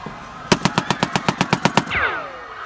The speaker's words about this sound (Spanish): No había absolutamente nada que pudiera hacer en ese momento, salvo que quedarme allí tirada, rezando que las balas que escuchaba no conectaran conmigo.